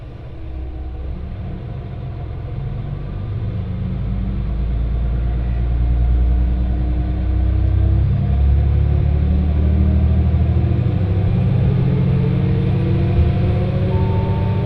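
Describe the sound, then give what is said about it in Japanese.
A small one-man local train bound for Fukui running on rails, a loud, steady low rumble with an engine hum that slowly rises in pitch as it picks up speed. No voices are heard. “この列車は福井行きワンマンカーです”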